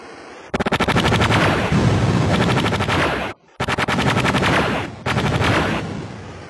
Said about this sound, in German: Ah, es ist auch die Schmeißerkanone, hat so einen schön aggressiven, lauten Klang.